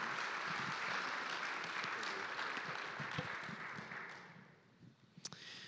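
Sustained applause from an audience, a dense wash of clapping that holds steady for several seconds, then gradually thins and fades out, ending with a few brief knocks.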